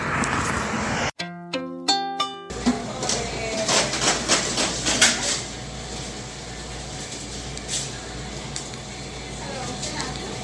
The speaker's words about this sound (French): Il y a des camions, ça fait un peu plus de bruit.